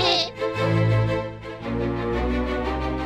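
Sheep bleating, apparently voiced by people imitating the animals as the flock of sheep starts singing in a telling of Animal Farm: two long, wavering, nasal bleats in a row, loud and sustained, with no other sound around them.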